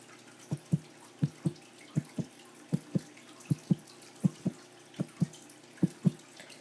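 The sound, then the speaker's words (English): A muffled, low heartbeat thumps steadily in paired lub-dub beats, a Foley effect made by holding a t-shirt tight and pulling on it; about eight double pulses at an even resting pace, clear with no voices. “The next Foley sound I'll be creating is a heartbeat.”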